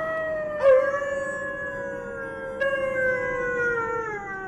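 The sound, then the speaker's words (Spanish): Long, mournful wolf howls, drawing ever closer in the darkness, carry clearly with no talking, one drawn-out cry joined by a second that rises in about two seconds later, both slowly sinking in pitch before fading. “no sabía qué hacer, y menos con los aullidos de los lobos cada vez más próximos.”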